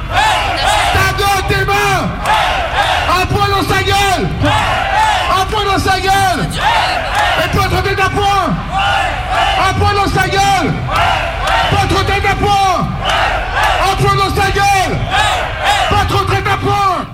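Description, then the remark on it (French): A loud, torch-lit protest march crowd chants in steady, repeating phrases roughly every two seconds, many voices shouting together over a continuous roar that never lets up. “Flumis rouge, flambeaux au point, de plus en plus d'éther et de loin la foule que nous formons tout en flammes ressemble sans doute pas mal à la Révolution.”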